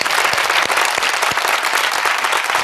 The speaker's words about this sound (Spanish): Así que el primer aplauso es para todos los sanitarios y sanitarias al frente de esta situación jodidísima. Un aplauso para ellos.